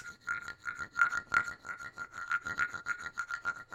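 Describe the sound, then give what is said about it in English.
A wooden clave scraped in a steady run of quick, ratcheting strokes, producing a chirping rasp much like crickets, with no one speaking. “And it also does this sound, which I love, like crickets.”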